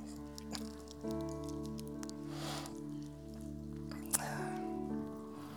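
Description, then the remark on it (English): Thin foil being peeled back from a small communion cup, with soft crinkling and a few brief scratchy bursts over a steady low hum. It's quiet, with no voices. “Jesus then took the cup and peeled back the foil.”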